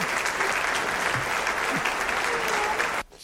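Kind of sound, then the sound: crowd, round of applause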